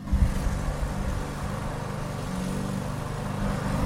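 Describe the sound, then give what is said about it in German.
Frau Schmitz's Bosch two-stroke petrol lawnmower drones steadily throughout, a rough continuous low rumble with a harmonic buzz, moderately loud, with no one speaking. “Das ist Frau Schmitz mit ihrem Bosch-Rasenmäher. Ein Zweitakter Benziner.”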